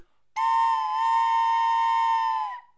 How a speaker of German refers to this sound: Das Krokodil hat natürlich schon wieder geschlafen und ist erst aufgewacht, wie die Lokomotive gepfiffen hat.